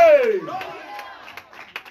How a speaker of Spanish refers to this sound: Dale un fuerte aplauso al Padre, al Hijo, al Espíritu Santo, a su nombre.